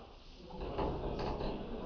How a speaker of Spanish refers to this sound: Cierra la puerta, por favor. Gracias.